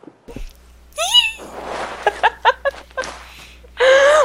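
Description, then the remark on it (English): A tiny, excited, high-pitched squeak rises sharply, followed by a run of short breathy squeals and a final bright, sustained squeal, fairly loud with no speech. “That that noise on air was just what I wanted in life. A little, a little teeny tiny squeak.”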